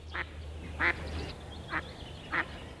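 A mallard duck quacks four times in short, separate bursts at an uneven pace, moderately loud against a quiet, low background hum.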